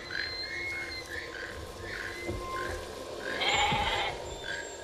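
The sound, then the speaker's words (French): A goat, Lucette, bleats in a series of short, repeated calls, with a louder, rougher bleat near the end, set against a steady outdoor farmyard background. “Qu'est-ce qui va arriver à la chèvre”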